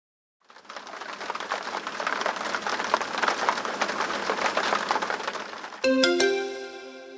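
Steady, dense rain patters onto the wooden beams of a sukkah for several seconds, an even crackle of drops, then a bright electronic tone sounds at the very end.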